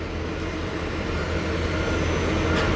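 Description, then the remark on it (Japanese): Steady, loud outdoor roar of aircraft engines at Haneda Airport, heard from the fifth-floor observation deck of Terminal 2 in fine weather, a broad constant rumble with a low hum underneath and no talking. “おはようございますえ今羽田空港第2ターミナルの5階の展望デッキに来ています”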